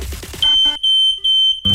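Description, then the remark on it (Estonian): A shrill, high-pitched smoke alarm sounds in three loud, steady beeps of equal length, separated by short gaps, with some background noise before and after. “suitsuandur.ee-st leiad parima valiku suitsu- ja vingugaasiandureid hooaja suurima allahindlusega”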